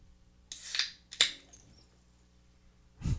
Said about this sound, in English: Oh, it was a little sizzle at the end. I like that. That's a Guinness. Little bubbles, nice. A little nitro.